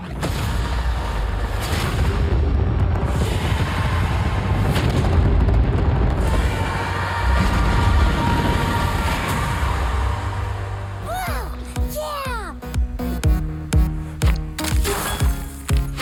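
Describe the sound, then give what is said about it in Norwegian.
Video game gunfire and heavy booming explosions rumble in a dense barrage, then give way to bright chiming, swooping game sound effects and pops in a bouncy, rhythmic pattern, from the video games Call of Duty and Candy Crush. No one speaks. “Det du hører her, det er fra noen eh, ganske kjente dataspill, nemlig Call of Duty og Candy Crush.”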